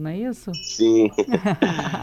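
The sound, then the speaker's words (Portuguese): Faint, high metallic tinkling of a wind chime in Patrimônio da Penha, in the Caparaó region of Espírito Santo, rings on steadily in the background while two people talk briefly over it. “Tô ouvindo um barulhinho daquele sino de vento”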